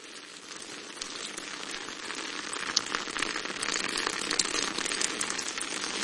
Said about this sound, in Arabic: لن يكون الصيد في المطر سهلا لقد أتيت من أجل المطر في واقع الأمر أردت أن أرى المطر في تلك الليلة التي أقضيها على شاطئ البحر فهمت أنا أيضا أردت أن أراه طول المطر على البحر